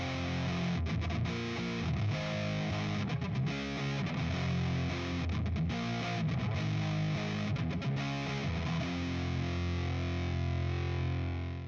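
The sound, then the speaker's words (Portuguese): Loud, heavily distorted electric guitar, plugged into an amplifier with the volume turned all the way up, blares for about twelve seconds, thick chords ringing with a few brief rhythmic breaks, and no one speaks. “Eu, quando eu tô irritado com os vizinhos, eu boto minha guitarra aqui na caixa, aumenta o volume todinho e começa.”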